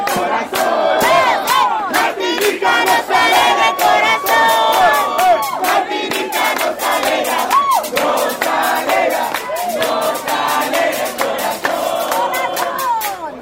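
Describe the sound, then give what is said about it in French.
A large crowd of young voices in the stands at a youth sports event chants a rhythmic cheer for Martinique in unison, loud, with sharp claps or stamps punctuating the steady beat throughout. “Martinique a aussi eu droit à son chant.”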